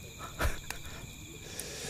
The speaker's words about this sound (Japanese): もう完全に秋の虫ですよね秋の虫になってうん心地いいなんですかね秋の虫はこうどうしてこんなに鳴き声が澄んでるというか綺麗なんでしょうねねうんセミと大違いですよ